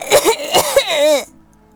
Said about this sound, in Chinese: 现在我动弹不得，还咳嗽，完全喘不上气来。